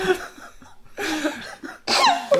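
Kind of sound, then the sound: human body sound, woman coughing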